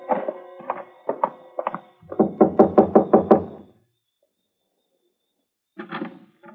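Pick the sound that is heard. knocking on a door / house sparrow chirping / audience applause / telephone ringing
knocking on a door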